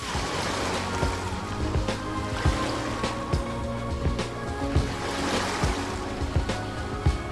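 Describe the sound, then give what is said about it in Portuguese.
A boat travels across open lagoon water from the Vila Náutica of the Lagoa Country Club in Cidreira toward the lençóis, with a steady engine drone and water splashing and slapping against the hull in irregular bursts, continuous, with no voices. “A equipe de reportagem da Rádio Gaúcha foi por água até os lençóis.”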